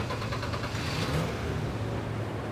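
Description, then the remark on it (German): Cars and bicycles roll off the Rhine ferry at Rolandseck, a steady mid-pitched engine rumble with a low hum underneath and a brief swell of revving, continuous and fairly loud throughout, with no voices. “die Fähre in Rolandseck an Land hält, fahren die Autos und Fahrräder von Bord.”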